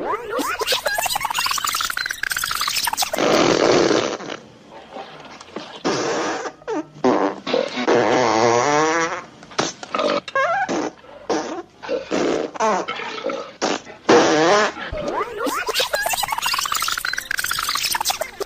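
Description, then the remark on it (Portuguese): A loud run of flatulence sounds from the bean-eating scene of the film Blazing Saddles, one after another with short gaps, some long and sputtering, others brief blasts. No one speaks. “Então a cena do, do Banzé no Oeste, em que eles estão comendo feijão, eles vão comendo e peidando, comendo e peidando, sem parar.”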